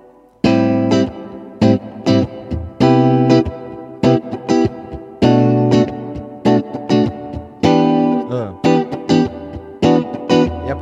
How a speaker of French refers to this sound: la deuxième fois, je refais la même chose. Do majeur 7. Enfin, la mineur 7, Do majeur 7. Si mineur 7.